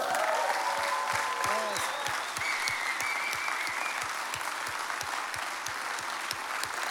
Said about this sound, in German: komm, wir geben Ihnen einen Applaus. Come on!